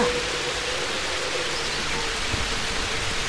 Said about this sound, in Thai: แล้วก็มีเสียงฝนตกอยู่ครู่หนึ่ง ฟ้าแลบแปรปราบทำให้เกิดแสงไฟสีขาววิ่งพ่านไปทั่วทั้งท้องฟ้าสีดำนั้น ในที่สุดฝนก็ตกกระหน่ำลงสู่พื้นดินราวกับฟ้ารั่ว